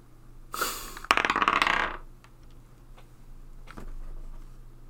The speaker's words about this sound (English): We're going to roll to see who goes first. We've both got a d20 in our hands. So I've rolled a 19.